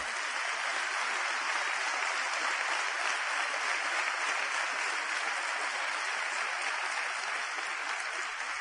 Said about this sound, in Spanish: Eso se merece un aplauso.